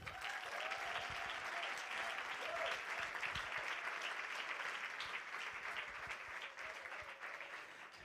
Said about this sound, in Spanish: Quiero que reciban con un fuerte aplauso a mi pastor,